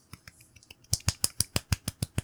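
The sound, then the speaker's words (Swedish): Brief hand clapping from a small group, applauding someone for having bought something: a few soft scattered claps that quickly become a steady run of about nine loud, sharp claps at a brisk even pace, without talking. “Det känns assjukt att applådera att du har köpt en sak, men alltså jag förstår exakt vad du menar.”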